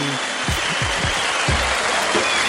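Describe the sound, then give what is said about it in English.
A crowd applauds loudly and continuously for a few seconds at the opening of The Shiznit Show from Red Rock Studio in Los Angeles, California, a dense steady wash of clapping with a few low cheers rising through it. “Now put your hands together for The Shiznit Show.”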